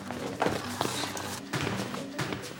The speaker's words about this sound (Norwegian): En perfekt plass til å sparke mjølk i kartongfotball. De sparker hele den lange gangen, helt bort til døra der klasserommet er.